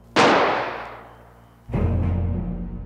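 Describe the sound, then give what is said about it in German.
A single loud gunshot from a hunting rifle, fired in a room by a man aiming at another man's chest, cracks sharply and rings out in a long fading tail, then a deep rumbling swell rises and holds to the end. “Er drückt ab.”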